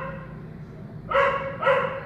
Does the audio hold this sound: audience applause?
no